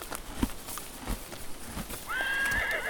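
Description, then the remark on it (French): Hooves clop unevenly on the ground for a couple of seconds, then a horse lets out a loud, wavering whinny that carries to the end, with no voices present. “Une famille de licornes se promène près du ruisseau qui traverse le boisé.”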